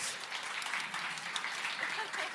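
Steady audience applause greeting the guests of a panel discussion, a dense crackle of many hands clapping at once, holding at an even level throughout with a few sharper claps standing out.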